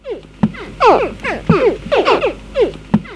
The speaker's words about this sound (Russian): Вот сейчас вы слышите звуки, которые издают нильские крокодильчики, еще сидя в яйце.